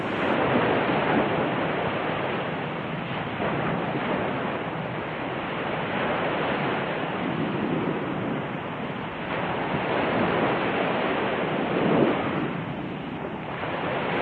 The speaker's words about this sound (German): Heute Morgen bin ich mit dem leisen Rauschen der Wellen vom Meer her aufgewacht, in einem Haus direkt am Strand.